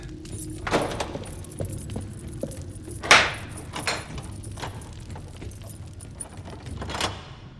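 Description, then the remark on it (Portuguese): A bunch of keys jangles in bursts of bright metallic clinking as a man runs to a door and tries keys, with a sharp louder clack midway as the right key turns the lock on the third try, locking an old man in the dining room, followed by more scattered rattling and a final jingle. “Pega as chaves e corre para a porta. Na terceira tentativa, ele encontra a chave certa e tranca o velho na sala de jantar.”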